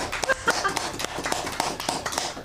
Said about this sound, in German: Klopf